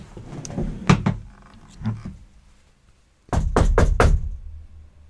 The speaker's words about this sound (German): Soll ich mal klopfen? klopf mal und guck, ob es zurückklopft.